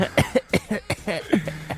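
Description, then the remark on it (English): A man coughs in a rapid fit, about five or six harsh, raspy bursts in quick succession, fairly loud, with no talking. “We have the Josh Frydenberg of the radio industry. Pretty sick, eh?”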